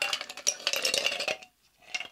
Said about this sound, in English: Now I have to add the ice.